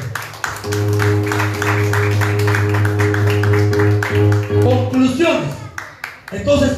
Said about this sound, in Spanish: Palmas a Jesucristo porque Él es bueno.